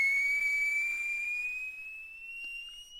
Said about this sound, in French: Quand tout à coup, il entend un sifflement aigu qui vient rompre le silence qui règne dans les terres.